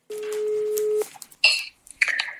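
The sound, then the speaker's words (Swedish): A phone call going through: one long, steady ringback tone lasting about a second, then short bursts of bright, crackly electronic noise as the line connects. No one speaks. “Oh, vi, bara, vi bara ringer.”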